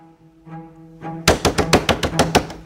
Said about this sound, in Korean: 새벽에 문을 쾅쾅 두드리는 소리가 또 들려옵니다.